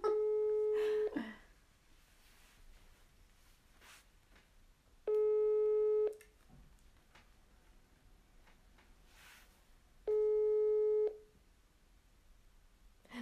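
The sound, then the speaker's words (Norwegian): A telephone ringback tone plays over a speakerphone after a number is dialled: three steady, evenly spaced tone bursts about a second long, separated by quiet pauses, with no talking during the tones. “Da har jeg tasta inn nummeret, setter på høyttaleren.”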